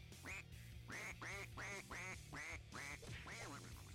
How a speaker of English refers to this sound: Quack Quack. Quack Quack.